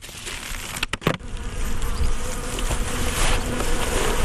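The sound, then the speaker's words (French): A steady, dense drone of many honeybees buzzing in an opened, weak hive whose cluster covers only three or four frames, on a fine, windless day. A few brief clicks and knocks early on, like frames or tools shifting, then a continuous hum with no talking. “Donc là, ça c'est une ruche qui est faible.”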